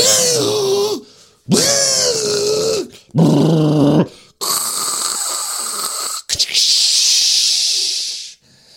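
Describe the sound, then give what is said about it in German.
A voice imitates an espresso machine while standing next to a Senseo coffee machine being pressed: three gurgling, throaty bursts followed by two long, steady hissing blasts, with no words spoken. “dann gehen die einfach rum, rum, rum, drum, rum, drücken auf die Senseo-Maschine und ich stehe daneben und mache dann so die Geräusche von der Kaffeemaschine nach, so”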